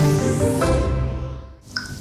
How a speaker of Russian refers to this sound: Так звучит плохая крыша во время дождя. Так звучит плохая и дорогая крыша.